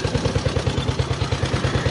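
An old motorcycle, capable of about 70-75 km/h and with car-style gear changing rather than a foot shift, runs with a steady, rapid low-pitched thumping pulse and a clattery mechanical edge, with no voices.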